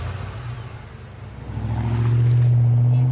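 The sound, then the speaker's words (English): A truck engine rumbles low, then revs up and builds into a steady, loud roar as a 25-year-old man who has just finished a beer at a party drives off for home. “gets in his truck, and starts for home.”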